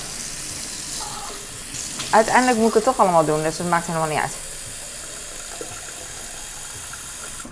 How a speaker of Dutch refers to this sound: Ik ga even mijn water vullen, want eh, dat is wat ik doe.